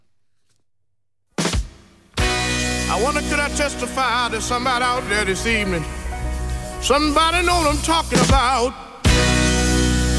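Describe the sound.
A soulful gospel-style song with a male lead singing expressively, sustained wavering vocal lines over a steady band with bass and organ-like chords, loud and full throughout.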